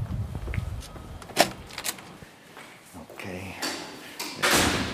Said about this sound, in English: Push the door, please. Yes, thank you.